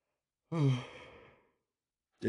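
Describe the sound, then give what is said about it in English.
A single long yawn with a breathy, voiced onset that trails off slowly over about a second, followed by silence and the start of another sound. “Pardon me, had to yawn.”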